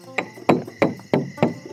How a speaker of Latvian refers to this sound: Viena no viņām joprojām aizelsusies pēc izmisīgā skrējiena naktī, pieklauvē pie koka durvīm. Aiz tām mazliet pieslāpēti skan mūzika un dzirdamas jautras ļaužu čalas, bet atbildes nav. Kāda no meitenēm klauvē vēlreiz, šoreiz jau skaļāk